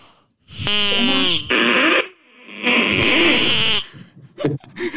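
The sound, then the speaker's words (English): A duck quacks loudly: a few long, raspy, nasal calls in quick succession, then some softer, scattered little sounds trailing off. “what sound what sound do ducks make? People heard it at the top of the show, but what sound do ducks make?”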